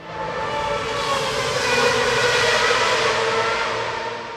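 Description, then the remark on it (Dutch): A loud, high-pitched Formula 1 race car engine roar from before the engines became partly electric fills the whole stretch, a steady screaming whine that swells slightly in the middle and stays intense throughout, with no voices. “Laatst las ik in de krant dat er enorme ophef was rond de Formule 1 races.”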